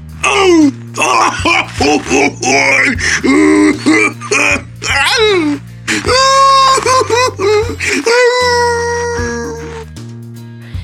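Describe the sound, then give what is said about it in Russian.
A wolf howls in pain after a hedgehog strikes it hard on the back with a stick: a series of wavering, sliding wails, then two long sustained cries that fade out, all over a steady low musical bass pattern. “Взвыл волк от боли, подпрыгнул и бежать.”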